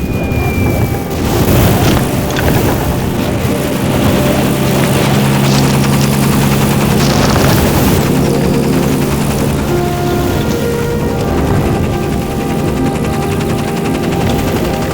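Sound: helicopter flying away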